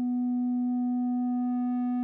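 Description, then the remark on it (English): A single sustained note on the pitch B played on an Elektron Analog Keys synthesizer, a smooth, pure, sine-like tone with faint overtones, held steady at an even level for about two seconds with no other sounds. “It's been given a name B, being played out of my Elektron Analog Keys synthesizer.”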